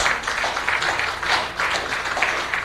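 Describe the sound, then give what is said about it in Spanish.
A crowd applauds steadily, many hands clapping in a dense, continuous patter that swells slightly in places and holds at a fairly loud level throughout, with no voices standing out: a closing applause for the Lord at the end of an evening worship gathering. “Y nos despedimos con un fuerte amén y un aplauso para el Señor.”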